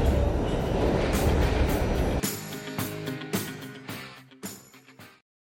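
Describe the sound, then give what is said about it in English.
A steady, loud low rumble of a subway train riding, heard from inside the car for about two seconds, then cut off abruptly by music with punchy drum hits. “Uh, I am literally on the subway about to present an interview for the Saturday sit down”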